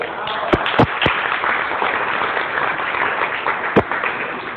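An audience applauds a band steadily, a dense wash of clapping with a few sharper, louder claps standing out near the start and again toward the end.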